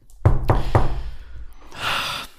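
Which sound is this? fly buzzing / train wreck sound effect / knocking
knocking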